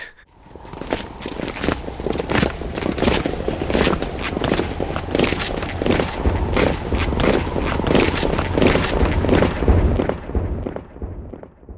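A loose-step footsteps sound effect from the Polish Radio Theatre effects: many footsteps crunch along in a steady, loose, unhurried rhythm, like a group walking casually over gravel. The shuffling is fairly loud, runs continuously, then fades at the end.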